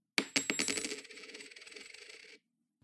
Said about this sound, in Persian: وقتی صدای تیز زمین خوردن سکه توی فضا پخش شد